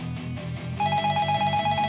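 A telephone starts ringing partway through: a bright, steady electronic trill that pulses rapidly, sounding over a soft, rhythmic low thumping. No one speaks.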